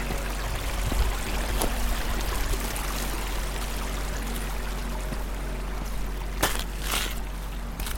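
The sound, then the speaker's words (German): Water of a mountain stream babbles and trickles steadily over grass, heath and rocks in a rough brownish-grey landscape, a continuous splashing with brief brighter spurts, and no voices present. “Das Wasser bildet mit seinem lieblichen Plätschern einen wundervollen Gegensatz zur rauen bräunlich-grauen Landschaft.”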